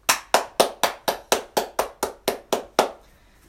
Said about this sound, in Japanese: ミニカホンを叩いてみた第69弾、始めていきたいと思います。